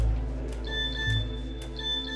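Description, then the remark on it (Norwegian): A phone in a handbag gives a couple of short, high electronic beeps, an incoming text message alert, over a low steady background hum, at a school in Bergen, Norway. No one is speaking. “Men plutselig piper det fra veska.”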